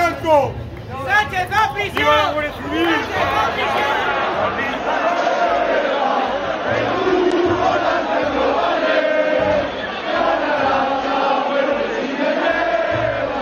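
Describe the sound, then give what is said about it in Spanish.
A large crowd at a rally shouts slogans together in rhythmic bursts, loud at first, then settling into a dense, continuous roar of massed voices. “en esas concentraciones hemos escuchado himnos fascistas, hemos visto banderas del águila, banderas carlistas, hemos escuchado consignas xenófobas.”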